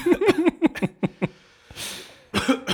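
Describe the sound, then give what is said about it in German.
A rapid series of short, harsh coughs, followed by a breathy exhale and then another burst of coughing. “hör doch mal auf mit der Husterei.”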